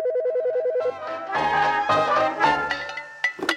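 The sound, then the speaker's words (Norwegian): An outgoing telephone call to a grandmother. An electronic ring warbles rapidly for about a second, then gives way to a bright, melodic ringtone tune that plays on clearly, with no one talking. “Jeg tar rett og slett og ringer min bestemor, eller farmor som jeg kaller henne”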